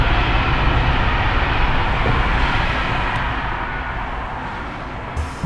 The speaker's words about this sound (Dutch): En dat had alles te maken met die trein die als een straaljager komt langs gezoefd van tijd tot tijd. Het is een TGV natuurlijk. Uh, ik ben curieus, dat is de eerste. Hoort het?